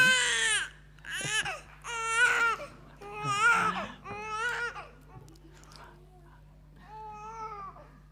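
A baby girl cries in repeated wailing bursts during a baptism service, loud, with strained high-pitched sobs and brief catches of breath between them, fading to softer whimpers toward the end.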